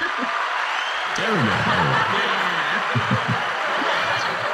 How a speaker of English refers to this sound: Crank up that applause